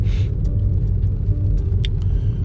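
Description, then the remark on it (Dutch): A steady, deep rumble fills the inside of a moving car, constant and fairly loud, with a brief hiss at the start and a few faint ticks and clicks scattered over the drone. “voornamelijk, voornamelijk eh, opgenomen in de auto.”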